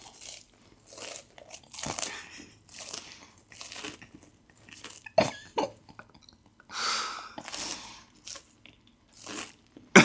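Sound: crunchy food being chewed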